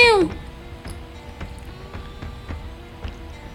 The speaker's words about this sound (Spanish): ¿No viste que hizo miau?